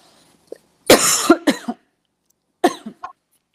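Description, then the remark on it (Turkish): A harsh fit of coughing: a loud burst of three or four rough coughs, a short pause, then two more weaker coughs, with no talking. “Evet bir alerjik durum. Bu dönemde öksürmek de ee, riskli.”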